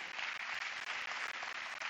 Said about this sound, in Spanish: Denle un fuerte aplauso a aquellos que recibieron a Jesús ahorita.